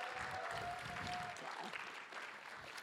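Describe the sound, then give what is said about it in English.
An audience claps steadily and densely for a few seconds, a continuous wash of many hands with no voices rising above it, fading slightly toward the end. “So it's just, it's uh, let's applaud for all the podcasts.”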